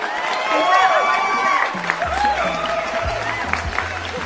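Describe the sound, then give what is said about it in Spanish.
A crowd claps and cheers steadily for several seconds, fairly loud and continuous, with scattered whoops and voices rising above the dense patter of hands. “Un fuerte, fuerte, fuerte aplauso”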